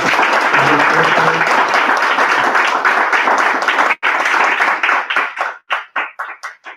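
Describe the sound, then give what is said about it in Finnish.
An audience applauds a speaker at the end of a talk during an extra-parliamentary action event on animal rights and climate, with dense, steady clapping for about four seconds, then the applause thins out into scattered individual claps that fade away. “Iso kiitos ja aplodit tähän valmiin.”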